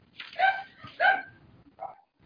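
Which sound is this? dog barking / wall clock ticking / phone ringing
dog barking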